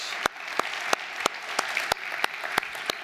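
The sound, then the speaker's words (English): A crowd applauds for the college family, a steady wash of clapping with sharp, evenly spaced claps standing out in a regular rhythm, with no talking. “Can we hear it for our college family?”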